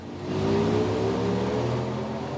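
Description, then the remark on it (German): A car running on a roller test bench gives off a loud, steady motor drone with tonal whine that climbs gently in pitch, with no voices. “Erste Soundideen, die am Computer entstehen, klingen am Rollenprüfstand oft ganz anders.”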